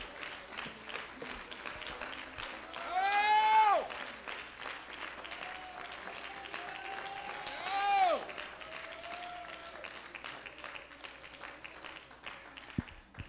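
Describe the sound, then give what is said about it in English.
An audience claps steadily in praise and adoration, a dense wash of many hands, with raised voices swelling into loud cheers twice amid the applause. “Give him a hand clap of praise and adoration.”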